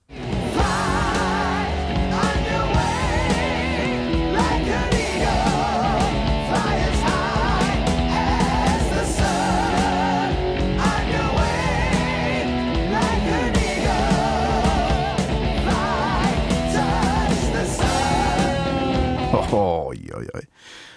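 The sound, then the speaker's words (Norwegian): A loud, dense heavy metal chorus plays with wailing sung vocals over driving distorted guitars and pounding drums, holding full volume for about twenty seconds before cutting off abruptly. “Vi kan først høre refrenget, og så kan vi høre bare vokalen etterpå, for det, det er jo sikkert du interessert i, tenker jeg.”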